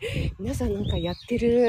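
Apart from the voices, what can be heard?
bird calling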